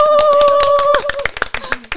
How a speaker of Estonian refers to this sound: aitäh teile. siin tahaks suure aplausi nüüd teha.